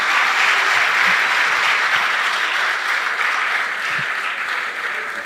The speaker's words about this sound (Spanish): Fuerte aplauso, fuerte aplauso. Fuerte, fuerte aplauso para Chupetín.